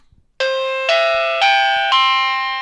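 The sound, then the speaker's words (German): A doorbell rings loudly, four bright chime tones struck in quick succession, each ringing on and overlapping the next before fading out. No one speaks. “Wir gehen mal von aus, wir sind irgendwo, was weiß ich, hinterm Haus, weiter hinten im Garten, jemand klingelt an der Tür. Und normalerweise wäre es jetzt so, das Ding hier würde klingeln.”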